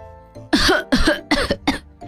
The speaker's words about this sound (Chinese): 猪小妹给斑马一杯水，说：“ 将头埋进两个膝盖之间，倒着把水喝下去。” 斑马坐下来，喝了几口，忍不住咳了起来